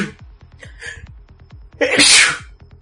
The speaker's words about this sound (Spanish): Uf, coronavirus, coronavirus. gracias, gracias. Estornudé, ni modo, tenía que estornudar.